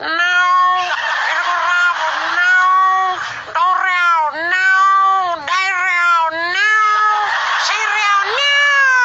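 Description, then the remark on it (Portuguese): A tomcat and a female cat caterwauling while courting: loud, drawn-out yowls that rise and fall in pitch, continuing almost without pause for several seconds with only brief breaks between wails. “Mas o mais engraçado mesmo é quando o gato vai namorar com a gata que eles começam a prosear.”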